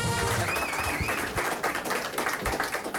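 A live audience at a BNN Vara broadcast applauds steadily throughout, a dense wash of clapping with one brief rising whistle cutting through near the start.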